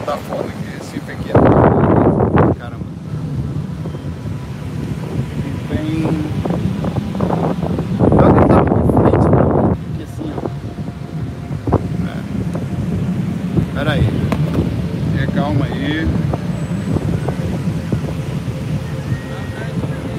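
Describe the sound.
Heavy wind buffeting a microphone, a low rumbling roar that swells into two loud gusts, with faint voices murmuring underneath.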